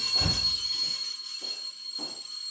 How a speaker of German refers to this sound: Gott, Alter, ist schon wieder laut hier. Boah, ist das am Quietschen.